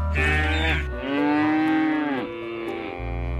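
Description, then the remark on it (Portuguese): Cattle moo loudly in a rural farming region of Finland, two long, drawn-out calls with rich harmonic tones, one sliding upward, over a steady low rumble of background noise. “E ouvem-se mugidos. São como que a banda sonora da região.”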